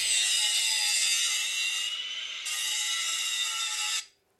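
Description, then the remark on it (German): An angle grinder used by Titus at the headquarters cuts with a harsh, hissing whine, loud, for about four seconds. The pitch shifts briefly midway, then the noise stops abruptly and leaves near silence. “Titus flext.”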